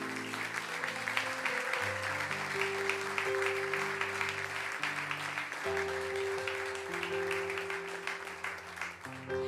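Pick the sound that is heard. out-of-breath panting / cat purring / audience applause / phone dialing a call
audience applause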